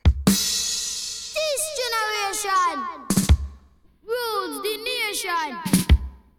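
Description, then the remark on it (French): Young voices sing a bright, bouncy pop-reggae tune, gliding melodic lines over a steady bass, with sharp percussive hits punctuating the phrases every few seconds. “Alors, on écoute cette soupe tout de suite. … ….”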